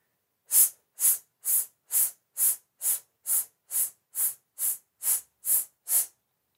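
A voice makes a series of about thirteen short, sharp, pulsed sibilant "sss" hisses in a voice exercise, evenly spaced in a steady intermittent rhythm, each one bright and breathy, with brief silences between them.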